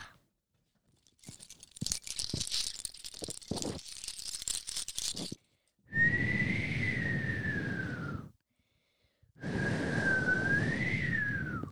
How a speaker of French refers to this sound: il y a beaucoup de vent, mais peut-être que le vent pourrait nous guider.